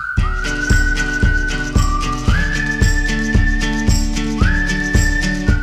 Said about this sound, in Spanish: ¿Qué tal si nos ponemos un poco hippie aquí y escuchamos música de esa mm, hippie de gente que no se baña?